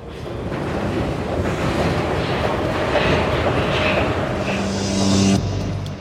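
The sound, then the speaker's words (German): A subway train rumbles steadily into a station, a loud continuous roar with rising tonal whines near the end as it brakes, then the noise drops off abruptly. “Die U-Bahn fährt ein.”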